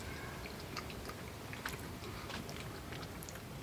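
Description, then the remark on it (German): Steady chewing of a strong, pungent cheese with a lot of rind, with moist, slightly crunchy bites repeating irregularly over a quiet background, no one speaking. “Oder liegt das jetzt daran, dass ich sehr viel Rinde habe?”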